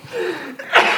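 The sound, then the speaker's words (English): A single loud sneeze from hay fever brought on by a change in weather: a quick breathy intake followed by a sharp, explosive burst of air that trails off briefly. “That, that change in weather has just given me the worst hay fever.”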